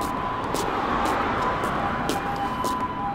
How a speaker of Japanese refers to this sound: 救急車が通っております